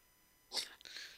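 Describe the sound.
A voice imitates a snore: one short, harsh, breathy snort burst, then a rougher, noisy exhale trailing off, with no talking.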